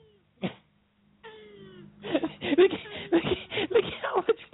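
A male tortoise's mating calls while with a female: one short huff, then a drawn-out squeaky wheeze, followed by a fast, rhythmic run of breathy squeaks and grunts, moderately loud.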